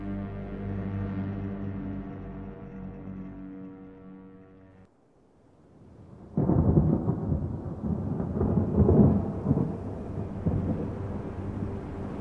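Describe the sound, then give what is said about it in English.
A deep, steady rumble fades into a brief lull, then a storm bursts in: dense, loud rain pours down with rolling thunder beneath it, continuing to the end with no voices. “Rain fell that day from clouds that scarred the sky like bruises on a newborn skin.”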